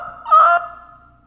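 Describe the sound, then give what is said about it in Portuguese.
A person imitates a seagull with one loud, nasal squawk that swells briefly, then thins into a fading, wavering tail, with no other talking. “Não tenho uma memória é, do som da gaivota. Eu acho que é assim”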